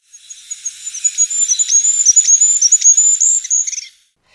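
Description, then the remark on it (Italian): A goldcrest's (Regulus regulus) faint, thin, very high-pitched whistling song, a rapid run of tiny notes lasting a few seconds and ending in a brief flourish, heard alone with no voices. “Quando, all'improvviso, ho sentito anch'io quello che il mio fido compagno aveva già captato, un fischio lieve e acuto.”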